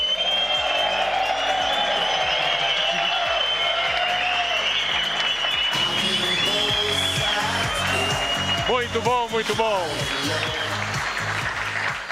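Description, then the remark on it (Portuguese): A crowd applauds and cheers steadily for the whole stretch as two men are called up, dense clapping with whoops on top, while a man's voice briefly speaks over the noise near the end. “Bora lá, vamos fazer barulho?”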